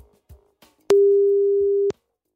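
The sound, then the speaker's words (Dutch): A telephone ringback tone: one steady, mid-pitched beep lasting about a second, loud and unbroken, preceded by a few faint clicks and handling noises, as a BNR radio reporter calls the mobile number of a Salvation Army (Leger des Heils) service office manager. “Ik heb hier haar 06-nummer. even kijken of ze er is.”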